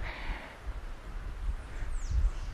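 Strong wind blows steadily through leaves, a continuous rushing hiss with low, gusty buffeting that swells toward the end; no one speaks.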